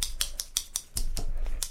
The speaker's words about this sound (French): Et est ce que c'est ce bruit c'est un bruit de ciseaux qui est super cool